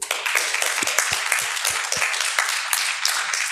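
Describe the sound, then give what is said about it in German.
Audience applause at a reading, welcoming an author about to read her short story: a steady, dense patter of many hands clapping at once, fairly loud and sustained throughout, with a few sharper individual claps standing out. “Einen Applaus bitte.”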